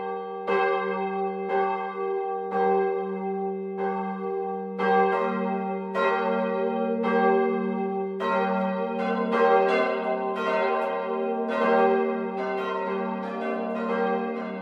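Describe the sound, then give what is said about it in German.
Several church bells of the Catholic parish church St. Martin in the Spessart village of Heimbuchenthal, Lower Franconia, ring together at noon from its tower in a full, overlapping peal, steady repeated strikes layered over a sustained low hum, with no voices present. “Das Mittagsläuten kommt heute von der katholischen Pfarrkirche St. Martin im unterfränkischen Spessardorf Heimbuchental.”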